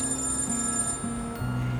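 A telephone rings in Oslo on a rainy day, a steady electronic tone that steps between a few low pitches, moderately loud, with faint high hiss behind it and no voices.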